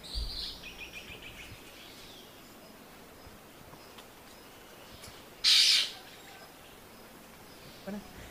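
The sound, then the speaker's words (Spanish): Palmchat calls: faint, distant chirps at the start, then one short, loud, harsh burst of chatter midway, with a brief chip near the end over a quiet, hissy outdoor background. “Cigua palmera.”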